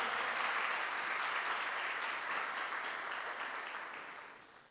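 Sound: round of applause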